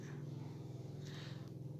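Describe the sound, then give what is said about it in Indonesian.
A motorcycle passes by outside, its engine droning steadily in a low buzzing hum that stays fairly faint throughout, with no voices over it. “Ini kayak suaranya motor lewat nih.”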